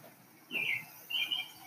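A robin sings in two short, high, bright bursts, each a quick run of sliding chirps, with a brief pause between them over a faint steady hiss.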